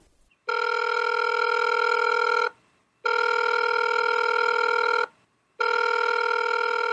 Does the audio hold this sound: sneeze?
no